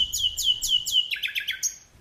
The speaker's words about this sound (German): In diesen leuchtenden Juninächten erklingt auch der Gesang der Nachtigallen.